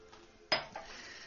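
Someone drinks a little water: a single sharp clink of a glass or cup, a faint second knock moments later, then quiet. No one speaks.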